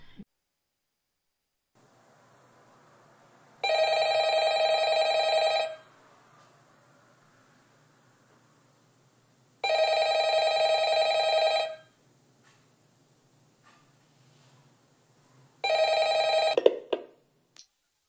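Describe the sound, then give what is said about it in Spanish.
A telephone rings three times before a recorded phone call, each long buzzing ring about two seconds, separated by steady pauses; the third is cut short by a click as if the receiver is picked up. A faint hiss fills the gaps. “No sé si se acuerdan de la llamada.”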